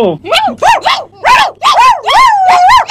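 A dog barks loudly in a quick, steady series of about seven barks, some drawn out into a whining, yelping tone.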